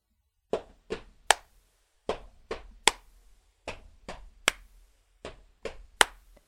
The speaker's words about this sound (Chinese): Brian 想编一首能让观众们也参与的曲子，就从最简单的踏步声和鼓掌声开始。